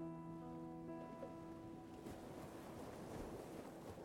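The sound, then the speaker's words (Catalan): Soft ocean surf, a wave washing in and swelling in the second half, with a steady low droning hum underneath at the start and no voices. “Apareix la onada, sent l'aire i se'n va. I després apareix la següent, igual que la teva respiració, sempre formant un continu.”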